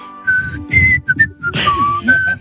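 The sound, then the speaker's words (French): Someone whistles the Smurfs theme tune, a short, bouncy string of clear separate notes rising and falling, with a brief breathy rush of noise partway through. “Oui, alors il sifflait la musique des Schtroumpfs parce que je ne connais pas la musique du petit chaperon rouge.”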